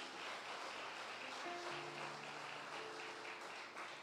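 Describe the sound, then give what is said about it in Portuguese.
Sustained applause given to the Lord Jesus, a dense, steady wash of many hands clapping for about four seconds, with soft held keyboard notes sounding underneath. “E se tem alguém que é chamado aqui, levante as suas mãos e dê um aplauso ao Senhor Jesus.”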